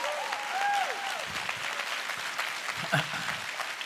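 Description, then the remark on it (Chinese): An audience breaks into steady, dense applause given to God, a wash of many hands clapping together, with a few voices calling out briefly over it. “拍手完了都给神。”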